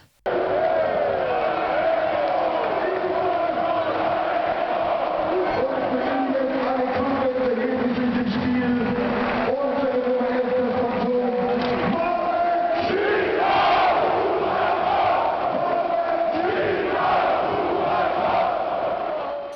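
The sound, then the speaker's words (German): A large stadium crowd roars and chants together as a football player is substituted back on in a cup semi-final against Frankfurt, a sustained, loud wall of voices, with rising cheers and rhythmic shouting filling the whole stretch without a break. “Und wie, das sich, wie sich das angehört hat, da haben wir einen schönen Ton gefunden.”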